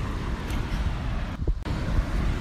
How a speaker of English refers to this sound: Just because uh, it's a bit loud, but it's really nice. Yeah, the waves are big